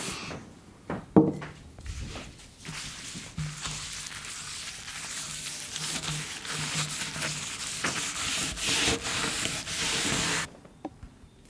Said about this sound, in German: Ich zeige es dir einmal ganz kurz. Ja. Und dann ähm, darfst du den Tisch massieren.